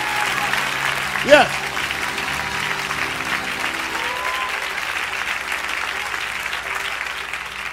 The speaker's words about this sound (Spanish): Si lo crees, un aplauso fuerte al Señor. Aleluya.